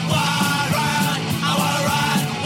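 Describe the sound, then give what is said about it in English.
A loud, dense song with shouted, yelling vocals over driving music and a steady pulsing beat, playing continuously and filling the whole stretch. “Okay, so now that I played this song twice,”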